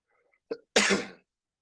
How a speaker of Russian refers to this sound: Да не, я не хотел что-то сказать, просто кашлянул.